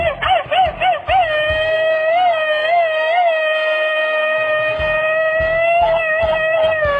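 A Mexican grito: a loud, high-pitched yell that opens with a rapid burst of staccato whoops, then stretches into a long, wavering, sustained cry lasting several seconds.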